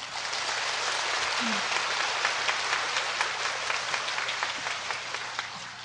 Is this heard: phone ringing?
no